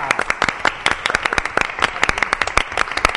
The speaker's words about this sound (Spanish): un aplauso.